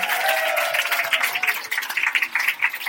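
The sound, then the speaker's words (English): An audience gives a round of applause for a man's 72nd birthday, a dense, steady patter of many hands clapping at once that stays loud and fairly even for the full three seconds, with no talking over it. “He's 72, so can we all give him a round of applause?”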